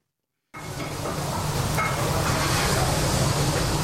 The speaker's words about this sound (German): Dampf quillt aus den vielen Töpfen. Manche sind so groß, dass man sich darin verstecken könnte. Zwei Köche rühren mit übergroßen Kellen in den blubbernden Töpfen.